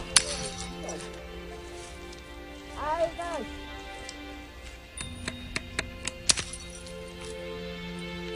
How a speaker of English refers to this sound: the kids they were destroying things with their ice axes, but but also they made new things, you know, and and new sounds.